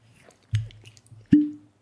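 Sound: cork pulled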